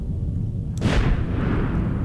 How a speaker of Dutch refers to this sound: En een van hen beschrijft hoe dat die zondag, want 10 november was een zondag, was geëindigd met het kabaal van kanonnen.